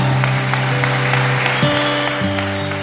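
An audience applauds with dense, steady clapping, while sustained organ or keyboard chords hold underneath and shift pitch a couple of times.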